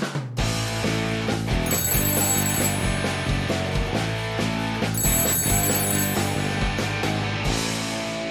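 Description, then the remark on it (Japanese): A telephone rings in two trilling bursts over a loud, upbeat musical jingle with a steady thumping beat, the bell sitting high above the music, opening a radio show segment where the hosts talk directly with listeners by phone. “こちらはシナラジリスナーの皆さんと電話で直接お話ししちゃおうというコーナーです。”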